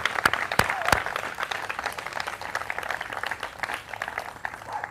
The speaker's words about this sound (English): Give God one more hand clap of praise here.